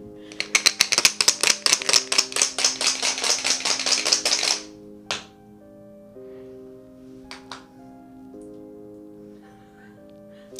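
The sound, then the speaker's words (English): Four dice rattle rapidly inside a container for about four seconds, a fast clattering shake, then a few isolated clicks follow as they settle, with a low steady hum underneath. “There's four dice in here, all right?”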